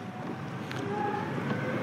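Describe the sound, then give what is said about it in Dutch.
A compact scooter's motor whines steadily, its tone edging upward as it accelerates in sport mode, ridden one-handed, with constant wind rush buffeting the microphone throughout. “Ja, dan merk je gelijk dat je veel meer vermogen hebt. Dat je dus wat harder kunt.”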